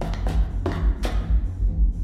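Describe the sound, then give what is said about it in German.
Several sharp raps on a neighbour's apartment door, four quick knocks in an uneven rhythm, heard over a steady, muffled thumping of loud bass music playing inside the apartment. “Vorbeigehen und schweigen? Oder klopfen und eine Ansage machen?”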